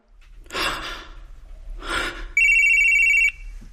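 Two heavy, breathy gasps or exhalations are followed by a loud, steady electronic telephone ring, a bright high-pitched tone with overtones lasting about a second before cutting off.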